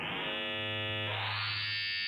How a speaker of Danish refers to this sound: Det er bare tre sinustoner, men de kan lyde af enormt meget. Bare ved, at man lader dem modulere hinanden.